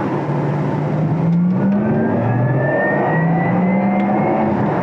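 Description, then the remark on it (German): A synthetic electric-car driving tone, the 'Electric Sound' switched on from a favourite button, rises steadily in pitch as the vehicle accelerates, a smooth humming whine layered over loud road and cabin noise with no talking. “Ich habe mir jetzt hier außerdem auf eine Favoritentaste mal den Electric Sound gelegt.”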